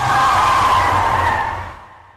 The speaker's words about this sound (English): After a few minutes driving from HQ, something white and floating appears. Jimmy hits the brakes.